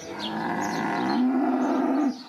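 A single long, loud cow moo lasting about two seconds with a low, droning pitch that rises slightly near the end before cutting off.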